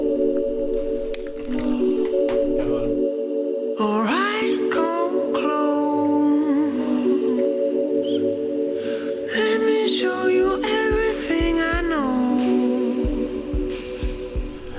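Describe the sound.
A mellow pop song plays continuously, with a sung vocal line gliding over steady sustained synth chords and a soft low pulse, loud throughout.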